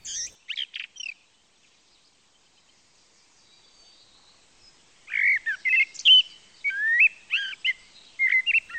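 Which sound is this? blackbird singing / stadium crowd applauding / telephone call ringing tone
blackbird singing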